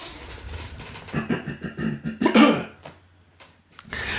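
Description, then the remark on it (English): A person imitates a co-host's cough: a few short, raspy bursts building to one louder, harsher hack, then quiet with a faint breath at the end. “So now I'm editing the latest episode, and he coughs like this.”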